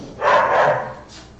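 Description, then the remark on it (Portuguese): A dog barks loudly, a quick run of harsh barks blurring together over about half a second, followed by a fainter trailing yelp, with no one talking. “Nossa, cachorro tá doido.”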